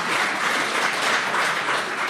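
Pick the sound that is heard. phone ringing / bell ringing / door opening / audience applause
audience applause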